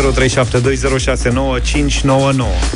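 A brief stretch of an electronic dance track: a processed, chant-like vocal rides over a steady, heavy bass, loud and continuous throughout.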